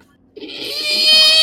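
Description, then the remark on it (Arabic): After a short pause, a voice lets out a strained, nasal wail in imitation of crying, one continuous cry that swells louder and holds to the end. “ايه انا لقلبي الصغير يا ان قلبي انا يتمزق تسمع هذا الصوت”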